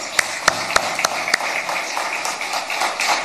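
Audience applause for a speaker after a question session, starting with a few loud, evenly spaced claps that give way to a steady, dense patter of many hands clapping together.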